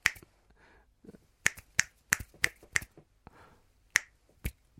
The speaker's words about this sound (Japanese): じゃあ、それじゃあ、ポールさんの、えー、指パッチンやってもらいましょうっつったら、一回転回って、